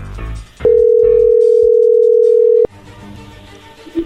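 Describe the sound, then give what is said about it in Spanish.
A telephone dial tone sounds as the call connects: one steady, loud hum lasting about two seconds, with quiet background noise before and after it. “pero bueno, a ver, ahí se está marcando, no haga ruido.”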